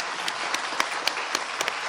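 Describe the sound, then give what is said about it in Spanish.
A crowd applauds the guests of a programme steadily, a dense wash of many hands clapping with a few sharper claps standing out at regular intervals, sustained throughout. “Un aplauso para todos ustedes que nos han enriquecido tanto y nos enseñan tanto todos los días.”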